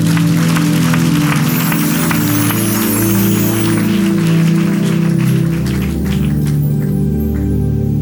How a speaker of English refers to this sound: Clap your hands, everybody.